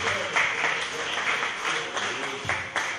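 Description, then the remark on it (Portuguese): A church audience applauds the name of the Lord during a communion service, a dense, steady wash of many hands clapping at once, sustained and fairly loud throughout with a few sharper bursts standing out. “Vamos aplaudir o nome do Senhor.”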